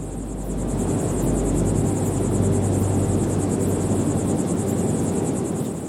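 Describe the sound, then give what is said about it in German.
A steady, continuous rush of desert wind at night, where the mountains meet the desert, with a deep low rumble, holding an even level throughout, with a faint high pulsing chirr like insects above it. No voices. “Entspanne dich, folge der Atemmeditation, genieße die Geräusche und den Wind der Wüste.”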